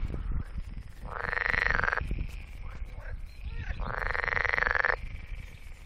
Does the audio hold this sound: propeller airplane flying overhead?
no